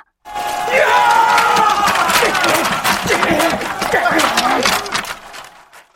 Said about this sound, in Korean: 절강에서 온 군사들이 함성을 지르며 뒤따라 올라가서 적이 꽂아놓은 길을 뽑아버리고 대신에 명나라 길을 세웠다.